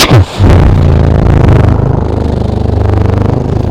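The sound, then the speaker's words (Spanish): A voice imitates an airplane engine with a loud, steady low droning hum, briefly rising before settling into a sustained rumbling buzz that pulses slightly toward the end. “¿Quería tener aviones?”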